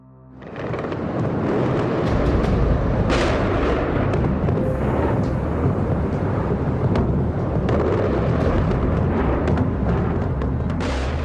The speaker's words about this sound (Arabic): على وقع صوت القذائف المنهمرة من السماء تجاه العاصمة العراقية بغداد